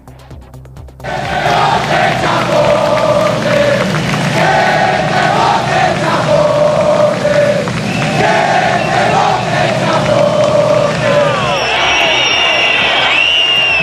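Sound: crowd whistling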